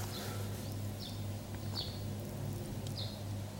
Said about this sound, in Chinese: 外面的鸟叫声非常的有节奏